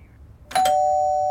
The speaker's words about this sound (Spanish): Ay, alguien llama a la puerta.